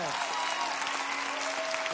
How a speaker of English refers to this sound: If you said that, clap your hands and give him glory.